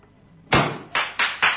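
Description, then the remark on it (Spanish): Four loud, sharp hammer knocks ring out, the first followed by a short pause, then three quicker strikes in a steady rhythm, with only faint background hush and no talking. The hammer knocks mark the end of the maneuver of a float in a street procession. “Y con este golpe de martillo finaliza la maniobra.”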